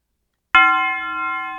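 A single bright bell chime strikes sharply after a moment of silence, then rings on with a sustained, slowly fading metallic tone. It is close and clear, with no voices.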